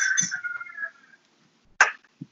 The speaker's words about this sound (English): feel like I'm back in Alabama here, hearing that rooster in the hmm. background.